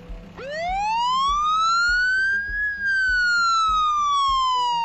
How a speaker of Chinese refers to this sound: 在消防车的警笛中，路上的汽车纷纷朝马路两边散开。这些车啊，必须给全速前进的红色消防车让道。